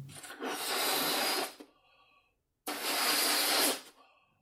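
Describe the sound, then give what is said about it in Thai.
Someone inflates a balloon with two long, breathy gusts of air, each about a second long with a brief pause between them. The whooshing is loud, with faint rubbery squeaks as each breath ends. “That basically means someone is blowing air into a balloon.”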